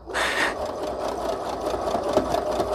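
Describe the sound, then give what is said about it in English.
A sewing machine runs steadily, its needle stitching a zigzag stitch in a fast, even mechanical rhythm that starts abruptly and continues without pause, with no voices over it. “Okay, trying to grab this and not sew myself at the same time.”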